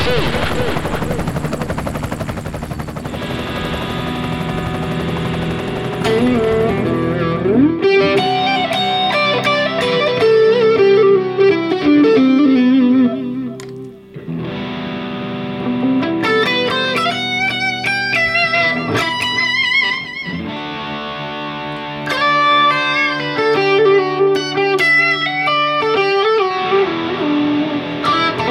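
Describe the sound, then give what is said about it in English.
An electric guitar is played with the fingers, picking out melodic phrases with bent, sustained notes and vibrato after a brief wash of noisy tone at the start. “I just love hearing your fingers on the strings, man.”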